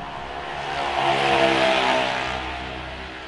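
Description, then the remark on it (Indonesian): A motorcycle engine on a roadside swells louder as it passes by, revving steadily at its peak, then fades slightly as it moves on along the road. “mohon maaf ya banyak suara motor karena emang kita lagi di pinggir jalan juga gitu”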